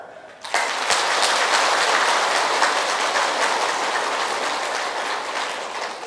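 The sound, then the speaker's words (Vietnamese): Loud, sustained applause from an audience of Buddhist followers starts abruptly after a brief moment and continues steadily as a dense wash of many hands clapping, with no voices. “nếu các quý vị phật tử thấy rằng là tôi muốn được hạnh phúc đó, cần phải kết thúc những điều đó, đó là có thể thực hiện được thì quý vị dâng cao tràng pháo tay thật lớn”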